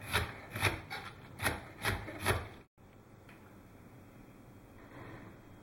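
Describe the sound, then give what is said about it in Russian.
Six quick, rhythmic scraping strokes of a knife shredding cabbage on a wooden board, fairly loud, then stopping abruptly and leaving a faint, steady hiss. “Нашинковать капусту.”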